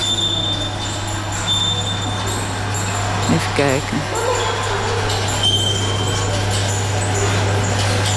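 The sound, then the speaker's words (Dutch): Mechanical kinetic sculptures in a museum hall rattle and clatter steadily over a low droning hum, with scattered knocks and clinks throughout; a voice speaks briefly midway. “Kijk, in de zaal naast ons gaat nu iets.”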